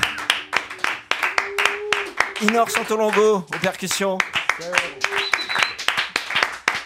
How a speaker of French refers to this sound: Et vous pouvez euh, hurler de joie derrière vous et applaudir grandement Arnaud Dolmen à la batterie.